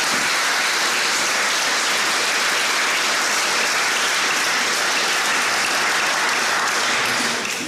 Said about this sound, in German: Applaus